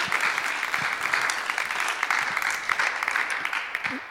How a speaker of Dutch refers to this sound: Kleine applausjes wel op zijn plek hoor. Dank u wel.